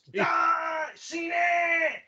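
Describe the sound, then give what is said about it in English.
A man lets out two long, loud, strained vocal cries in quick succession, sustained and harmonic, with a brief gap between them and no words spoken. “So I still believe I'm right, and I know he's wrong as he yells for that.”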